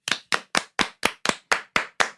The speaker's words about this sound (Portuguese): Achei genial, vou te aplaudir